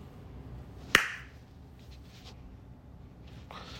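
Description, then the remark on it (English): One sharp hand clap cracks out early, then fades quickly into quiet with only faint background noise and a couple of soft rustles. “Oh, I didn't clap.”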